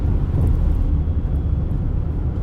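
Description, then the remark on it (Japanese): Steady low rumble of a car's engine and tires heard from inside the cabin, a continuous droning road noise with no voices, filling the whole stretch at an even level. “しかしこの見ている主体は今こう私なんか特に車ですから主体が動いているように感じるんだけども動いている感じも含めて認識っていう部分においては認識は動いてないですよ”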